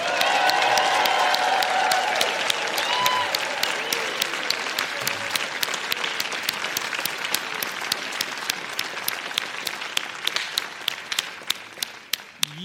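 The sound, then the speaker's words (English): A large audience bursts into loud, sustained applause in appreciation of mothers, on a count of three, with a few voices shouting over it early on, then the clapping gradually thins out to scattered individual claps at the end. “On the count of three, I want you to, if you want to give a rousing applause, if you want to shout out, I want the moms who are here and online to hear our appreciation right now on the count of three.”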